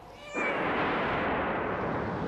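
A brief, high-pitched meow from Hamish, a big yellow cat stuck up a tree, sounds at the start, then is swallowed by a loud, steady rush of pouring rain from a thunderstorm downpour that continues to the end.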